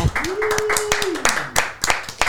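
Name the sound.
applause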